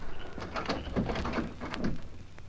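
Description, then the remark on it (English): A car door opens: a latch click followed by a few dull clunks and rattles of the handle and hinge, heard alone without any talking. “Now open that door and come in”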